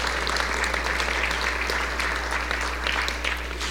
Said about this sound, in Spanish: Si es un aplauso, si es para Dios, déselo con fuerza, hermanos.